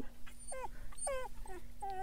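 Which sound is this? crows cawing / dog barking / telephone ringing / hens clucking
dog barking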